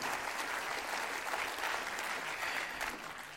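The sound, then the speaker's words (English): A church audience claps their hands together at the pastor's call, in steady, dense applause, a broad crackling wash of many overlapping claps that holds for a few seconds before tapering slightly at the end. “Can you clap your hands and say, I'm on that team, Pastor?”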